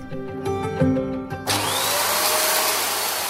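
vacuum cleaner running

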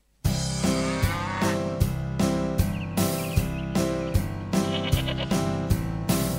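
sheep bleating

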